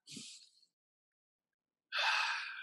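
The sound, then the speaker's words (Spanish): A deep breath drawn in sharply, a pause of silence, then a long, airy exhale. No talking. “Entonces tomas una respiración profunda”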